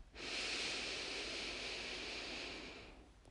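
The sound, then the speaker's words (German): A long, steady, deep breath drawn in through the nose during a relaxation exercise, lasting about three seconds, fairly loud with a rushing, airy hiss and no talking. “Atmet mal ganz tief durch die Nase ein”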